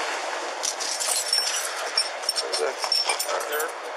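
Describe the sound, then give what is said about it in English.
Keys jingle on a ring, several light metallic clinks scattered irregularly over a few seconds against steady background noise and faint muffled voices. “And then whose keys are these?”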